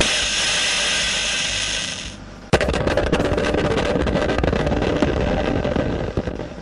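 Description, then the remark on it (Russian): A dense, hissing mechanical whir from an old Soviet arcade machine simulating a submarine torpedo attack on moving ships, one of the first arcade games made in the USSR, gives way after a brief dip to a louder, crackling rattle with rapid clicking bursts, like a torpedo launch and explosions, with no voices. “Издавал советский игровой автомат, имитирующий торпедную атаку подводной лодки по движущимся кораблям.”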